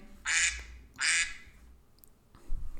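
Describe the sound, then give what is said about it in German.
Two loud, nasal duck-quack tones in quick succession from a mobile phone timer signalling that a quarter of an hour is up, followed by a quieter low thump near the end; no one speaks. “So, gleich quakt wieder mein Handy. Das heißt, die Viertelstunde ist um”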